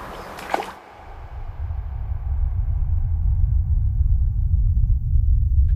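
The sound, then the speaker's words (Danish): A single sharp smack as a grayling breaks the water surface of a stream near the start while taking an insect or hatching nymph, followed by the steady low rush of the flowing stream. No one speaks. “Det giver en smækkende lyd, når de bryder overfladen.”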